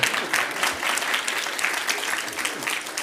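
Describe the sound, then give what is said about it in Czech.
An audience at a gathering applauds a man who has just spoken, a dense crackle of many hands clapping at an even loudness for about three seconds, with no one speaking over it. “Zatleskejte mu.”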